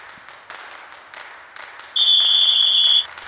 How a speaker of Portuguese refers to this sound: Roda a vinheta então para a gente começar a falar dos nossos cenários de playoff do 8x8.